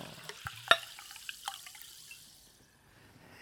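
Water being poured, with a few sharp splashy drips and clinks over the first second and a half before the trickle fades into near silence.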